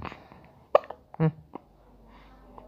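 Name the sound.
baby hiccuping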